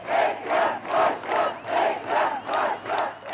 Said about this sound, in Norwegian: Borgermester Ekrem, borgermester Ekrem, roper folk. Og når han klatrer opp på taket av bussen for å tale, møtes han av et jublende folkehav.